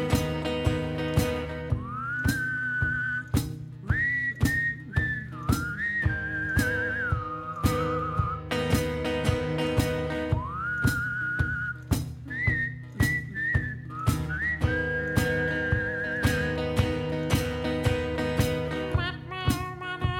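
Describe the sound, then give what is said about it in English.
An eerie, wavering whistle glides up and down between held notes, like a UFO sound effect, over a steady rhythmic musical backing. It lasts the whole stretch, loud. “UFO whistle here.”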